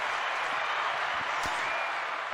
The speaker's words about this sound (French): On arrête les applaudissements s'il te plaît.